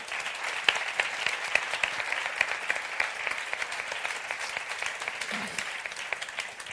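An audience applauds steadily throughout, a dense patter of many hands clapping at a fairly even level with no voices standing out.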